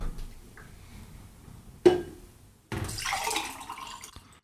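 A sharp clink of glass, then a steady stream of water pouring into drinking glasses for a couple of seconds, fairly loud, with no talking, as people pour water for one another.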